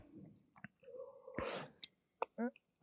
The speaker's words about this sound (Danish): Jeg kan godt høre, du drikker kaffe